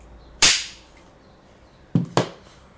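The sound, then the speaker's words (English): A film slate clapper snaps shut three times: one loud, sharp crack with a short ringing tail, then after a pause two quicker snaps close together. No one speaks. “You don't use the clapping?”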